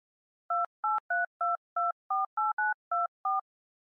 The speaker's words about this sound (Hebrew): שלפתי את הפלאפון מהכיס וחייגתי.